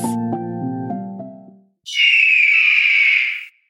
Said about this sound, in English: Let us imagine and pretend it is an eagle flying by. It looks so powerful, just like us humans.